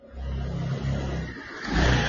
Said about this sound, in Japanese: うっそ、いいバイク来たよ、俺また。あら早いですか